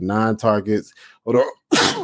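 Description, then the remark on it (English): A man talks briefly, pauses, then lets out a single loud sneeze, a sharp burst of breathy noise right at the end. “I've never heard somebody say "uh oh" before they sneeze, bro.”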